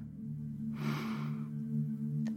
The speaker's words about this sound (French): Prenez le temps d'une grande respiration, profonde et ample.